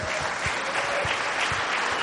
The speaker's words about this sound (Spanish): Pero a veces, démosle ese aplauso a Dios por mi esposa que es una bendición.